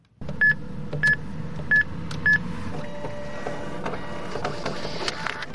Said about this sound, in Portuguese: Trata-se apenas de uma caixa de multibanco, mas que faz toda a diferença na vida dos habitantes da localidade de A dos Loucos, em Alhandra, no concelho de Vila Franca de Xira.